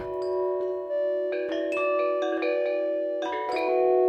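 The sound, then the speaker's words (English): A short melodic sample loop, pre-recorded and sampled into a Make Noise Morphagene, played back normally without reverb: bright, plucked-sounding notes over a sustained tonal bed, dry and upfront with crisp note attacks, steady in volume and with no voices. “This is normal so this is normal without reverb.”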